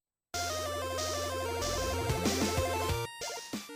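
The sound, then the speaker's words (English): Dense, loud theme music bursts in after a brief silence, with sustained buzzy tones and shifting melodic notes layered together, dipping for a moment near the end before continuing. No one speaks. “Our theme music is provided by”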